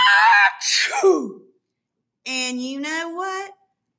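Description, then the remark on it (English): A voice acts out a big, loud sneeze: a sharp breathy build-up and explosive burst, a pause of silence, then a drawn-out, strained vocal sound, all forceful. “Well, he huffed and he snuffed and he sneezed a great sneeze.”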